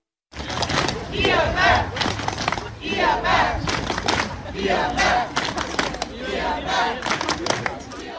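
A large crowd of several hundred protesters chants and shouts in rhythmic surges outdoors in front of an Irma supermarket, protesting Coop's announced closure of the store, voices rising and falling in loud waves with a steady low rumble underneath, continuous throughout.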